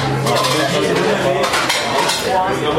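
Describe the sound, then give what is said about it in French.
A loud, continuous din of many overlapping voices chattering at once, with dishes and cutlery clinking throughout. “est-ce que vous avez déjà essayé de comprendre ce que dit votre interlocuteur dans un brouhaha euh, euh, comme, celui-ci, lorsque tout le monde parle en même temps, de tout, et bien sûr tous plus fort les uns que les autres”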